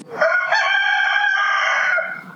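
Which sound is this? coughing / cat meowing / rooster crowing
rooster crowing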